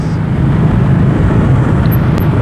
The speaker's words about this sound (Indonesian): Nah ini bisa dengar suara kendaraan sebelah kanan dan kiri saya Saat ini situasi sedang macet yang ke arah Pondok Indah